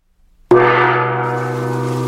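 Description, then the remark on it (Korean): A single loud gong strike rings out after a brief silence, its deep, shimmering tone sustaining and slowly decaying with no other sounds around it; the gong signals troops to halt their advance and withdraw. “징소리가 한 번 울렸다!”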